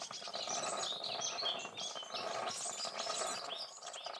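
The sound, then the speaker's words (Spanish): Busy birdsong with many overlapping chirps and tweets, steady and fairly loud throughout, layered over a continuous coffee-machine ambience of low hiss and rumble. No one speaks. “Por ejemplo, este sería el de aves junto con una máquina de café, con un hámster como mascota, un bebé durmiendo y los hijos del vecino jugando afuera.”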